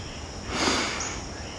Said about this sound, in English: Take a sniff.